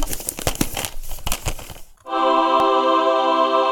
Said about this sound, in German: okay, ich gruschel wieder eine DVD aus dem Säckchen und heute wird es folgender Film.